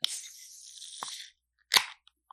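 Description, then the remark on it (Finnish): A can of Rainbow Lager beer being opened: a sharp click followed by a steady, airy fizz lasting over a second, then a louder crackling burst and a couple of faint ticks. No one speaks. “Korkkaus siitä.”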